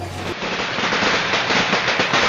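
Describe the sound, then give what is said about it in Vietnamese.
Rapid, dense crackling of firecrackers bursting outdoors in a yard to mark the Vietnamese Lunar New Year (Tết), a continuous loud rattle of many small pops running together with no pauses. “ngoài sân tiếng pháo bắt đầu nổ giòn tan đánh dấu một năm mới đang đến trong một không khí tết thật việt nam”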